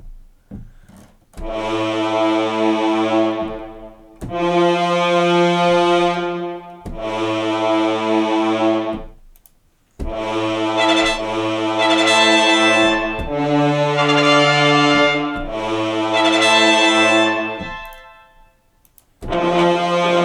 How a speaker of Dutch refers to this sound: Dat is een beetje dat geluid wat eh, sinds eh, de eerste Batman van Christopher Nolan in ongeveer in iedere actiefilm zit.